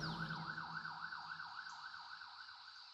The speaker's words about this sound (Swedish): Snart kom brandbilen körandes längs med grusvägen med en himla fart sirenerna tjöt när de nu tog av vid nästa avfart.